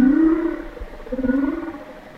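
A humpback whale gives a long, smoothly modulated tonal call that rises and falls, with a faint pulsed, cooing texture, heard underwater against low rumbling background noise.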